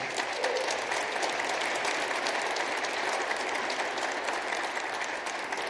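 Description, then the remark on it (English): A large church audience claps steadily for several seconds for their senior pastor, a dense, sustained wash of applause with no voices rising above it. “Now, I'm glad you applauded at that part and didn't wait to go”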